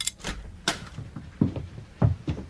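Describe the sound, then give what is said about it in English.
Sharp metallic clicks of a key turning in the lock of a cage door, followed by a few heavy low thuds and clanks as the cage door swings open, fairly quiet, with no voices. “As quietly as I could, I walked out of the guardroom, put the key into the lock of the cage door, and opened it.”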